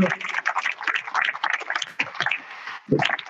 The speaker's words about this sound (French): Oui, vous pouvez applaudir, allez-y.